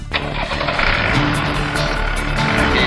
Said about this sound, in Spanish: Bueno, acá estamos por poner en marcha el rastrojero.